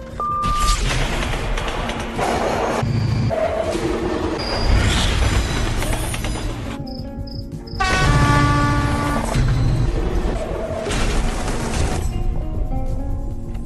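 A continuous, loud train soundscape: heavy rumbling and rattling of carriages, with shrill wheel squeals and brief high horn-like tones cutting in now and then. No one speaks.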